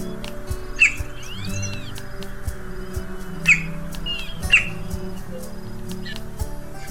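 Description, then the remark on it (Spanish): A Gila woodpecker (Melanerpes uropigialis) gives three sharp, high calls spaced a few seconds apart, with softer chirps of other birds and a low steady hum in the background. “Mi nombre científico es Melanerpes uropigialis y en inglés mi nombre es Gila Woodpecker.”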